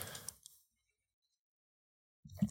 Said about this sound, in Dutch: dat was een vogel die tegen de ruit vloog. Oké, hij is terug weg kunnen vliegen, dus het was niet super hard.